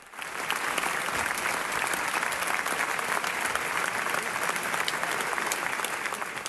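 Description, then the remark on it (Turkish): Sustained, dense standing ovation lasting minutes from a large audience at the end of pianist Fazıl Say's concert in the Palau de la Música concert hall in Barcelona, Spain, steady and enthusiastic throughout, with no voices standing out. “Dakikalarca ayakta alkışlandı.”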